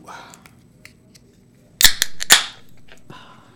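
A can or bottle of Mountain Living Pale Ale from Crazy Mountain Brewing is opened: a loud cluster of sharp cracks and pops over about half a second, rising out of a quiet background.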